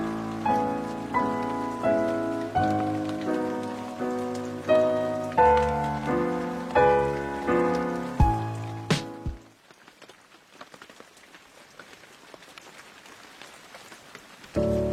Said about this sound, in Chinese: 这首歌，它的背景一直铺陈着稀稀拉拉的雨声，这个声音好像是滴落在地上，又好像是滴落在黄黄的树叶上面的感觉。这种雨声加钢琴的这种搭配，真是让人舒服到骨头里面